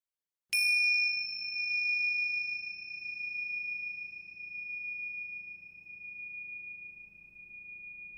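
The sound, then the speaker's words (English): A single clear bell ding rings out after a brief silence, its bright tone sustaining and slowly fading over several seconds with no voices present. “Stay with us because after the bell, we'll be taking you behind the dreams.”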